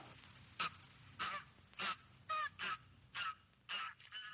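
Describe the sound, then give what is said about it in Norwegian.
Pink-footed geese honk repeatedly, about eight sharp calls in an irregular series, some overlapping, from a flock over a low background rumble. “Kortnebbgåsa er sine artssøsken overlegen i antall.”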